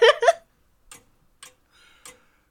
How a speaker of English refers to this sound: and as as the chimes come to a close, you hear him say, "Do we not hear the chimes at midnight?" I guess we do.